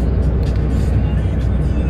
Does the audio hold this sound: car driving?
yes